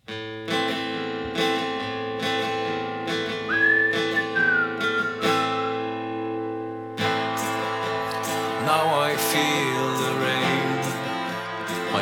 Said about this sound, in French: on se quitte avec le dernier titre, le dernier extrait de, du dernier album de …, …